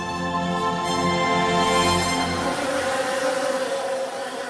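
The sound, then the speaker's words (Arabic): A swarm of angry wild Himalayan giant honey bees (Apis laboriosa) buzzing in a dense, steady drone, loud throughout, with no voices and only slight shifts in tone over a few seconds, during a honey hunt. “إنها مواجهة أسراب النحل البري الغاضب في أكبر تجمع له حول العالم ويطلق عليه اسم نحل الأبيس لابوريوسا من أجل صيد العسل الأخطر في العالم”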